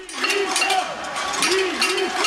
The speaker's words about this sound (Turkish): İspanya'da da sağ gruplar hükümetin normalleşme kararını tencere tava çalarak protesto etti.